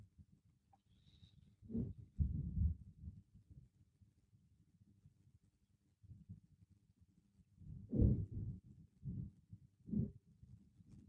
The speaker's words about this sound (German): Hearing what sounds like maybe a gunship or artillery in the background. 5:07 a.m. local time.